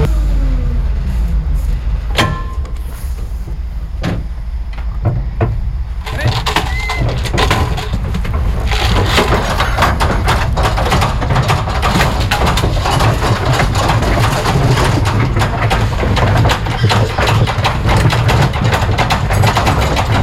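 A heavy livestock truck engine rumbles as the truck slowly reverses on a pig farm, come to take pigs to the slaughterhouse, with clunks and rattling knocks at first, then a steadier, louder churning roar of machinery and movement.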